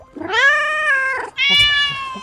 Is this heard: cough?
no